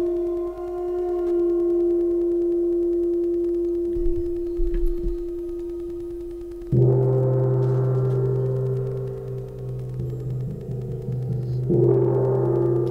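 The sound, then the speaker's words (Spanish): A gong rings with a long, sustained humming tone, then is struck twice more, each hit blooming into a loud, low, shimmering resonance that slowly fades. No one speaks. “rompe un poco el gong porque tiene mucha frecuencia y los micrófonos.”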